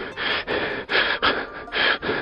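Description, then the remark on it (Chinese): A person imitates heavy panting after running or vigorous exercise: about six loud, breathy in-and-out gasps in a quick, steady rhythm, harsh and airy, with no talking. “另外，不知道小朋友们有没有注意到，当我们跑步时，或者是做了激烈运动之后，经常会大口喘气，就像这个样子。”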